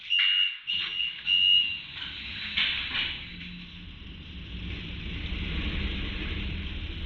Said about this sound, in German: Viertel nach sieben. Ich starte jetzt mit dem Auto Richtung Garmisch nach Greinau.